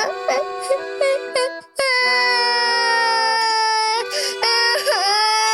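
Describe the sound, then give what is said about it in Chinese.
A voice imitates a wolf cub crying in a children's story: a few short sobbing whimpers, then a long, loud, sustained wail that wavers in pitch and swells before breaking into more sobs, the cub crying louder and louder. “小狼哥一听，越哭越大声了。”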